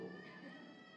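A young girl's thin, high-pitched whimper, one drawn-out wavering cry lasting about a second, with no talking around it.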